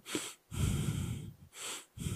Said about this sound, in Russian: дышим. Это основа нашей жизнедеятельности, понимаете?